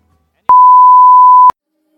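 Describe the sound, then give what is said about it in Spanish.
A single answering-machine beep: one steady, pure electronic tone lasting about a second, clear and fairly loud, with silence before and after and no voices. “Estamos en casa, pero no disponibles ahora para poder atenderte, por lo cual vas a tener que hablar con nuestro contestador.”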